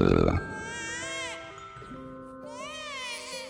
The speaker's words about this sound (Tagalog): iyak ng sanggol.